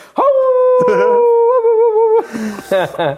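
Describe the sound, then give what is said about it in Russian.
A person imitates a dog howling, a long sustained wavering tone lasting about two seconds, followed by a few shorter yelping, whimpering sounds, loud. “И собака.”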